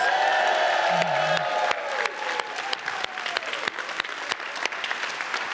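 An audience applauds loudly on a Saturday morning for the youngest participant, seated in the front row, with dense, continuous clapping, joined early on by a few whoops and tonal cheers that fade, leaving steady sustained clapping throughout.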